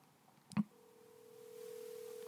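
telephone ringing tone

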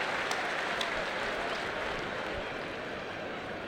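stadium crowd applause

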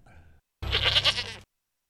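goat bleating

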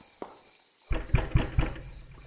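knock

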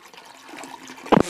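toilet flushing

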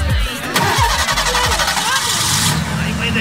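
car engine starting

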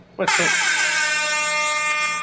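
air horn sound effect

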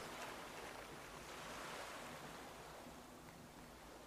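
ocean waves

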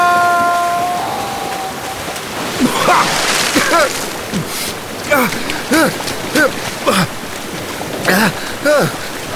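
rushing river water

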